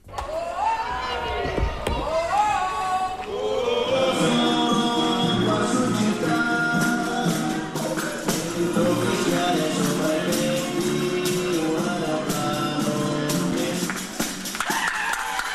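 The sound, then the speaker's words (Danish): Music plays in the streets of Italy during the coronavirus crisis amid a loud, cheering crowd, a dense wall of voices, melody and scattered percussive taps that stays strong for nearly the whole stretch. “Det er musik og jubel i Italiens gader.”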